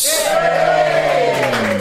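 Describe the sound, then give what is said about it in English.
A studio audience on Jason Manford's Absolute Radio show applauds and cheers loudly and continuously, with a sustained whooping voice rising above the steady wash of clapping. “So, our giving themselves a round of applause.”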